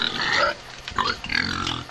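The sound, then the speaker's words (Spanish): Wild pigs grunting and squealing, a loud burst of rough snorting calls followed by a short pause and another run of grunts, with no voices. “Cerdos, cochinos, jabalíes, llámales como quieras a los cerdos salvajes.”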